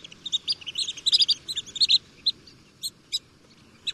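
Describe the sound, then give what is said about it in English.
Rapid, sharp high-pitched peeps of a long-billed dowitcher, clustered in quick bursts then thinning to a few isolated calls, heard clearly over a soft low rumble of background noise. “Here's the high pitched call of the long billed dowitcher.”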